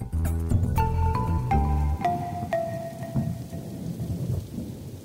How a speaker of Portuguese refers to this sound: No episódio de hoje, vamos conhecer Yasmin, a filha de Maria Rosa, que estuda na cidade vizinha, onde também está a chover torrencialmente.